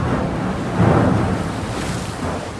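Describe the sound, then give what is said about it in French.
Steady rushing water and wind around the expedition ship Astrolabe at sea in cold weather, bound for the Dumont d'Urville base in Adélie Land, with a louder swell of waves washing against the hull near the start, then a continuous churning roar. No voices. “Un premier choc contre la coque, un choc sourd qui résonne dans tout le bateau, puis un autre.”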